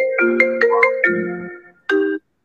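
A bright electronic phone ringtone from a Mac plays a quick melodic phrase of stacked tones, then after a brief gap sounds one more short chime, fairly loud with no voices.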